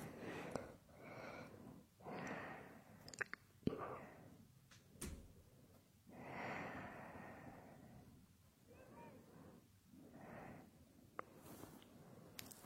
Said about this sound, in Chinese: 你刚才有没有听见门响了一声？是不是咱们家猫又在敲门呢？